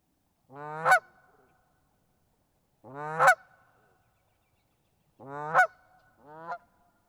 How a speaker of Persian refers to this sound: هر وقت دسته از قازها رو در حال پرواز میبینی همیشه در حال صدا دادن هستن به نظرتون دارن به هم چی میگن آیا دارن به هم اختار میدن آیا دارن همدیگر رو راهنمایی میکنن